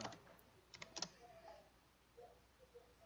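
Quiet typing on a computer keyboard: a few soft, scattered key clicks with a short burst in the middle, then mostly faint background hum with no one speaking.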